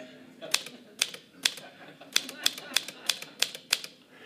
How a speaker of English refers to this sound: So I bought a typewriter I literally bought a typewriter. Do you remember these? Yeah.